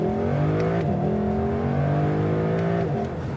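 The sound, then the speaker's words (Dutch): The V8 engine of a Lexus LC Cabriolet revs loudly and continuously during a test drive, its deep harmonic drone rising in pitch through the gears with brief shifts, no voices over it. “In de rijimpressie de Lexus LC Cabriolet met een V8.”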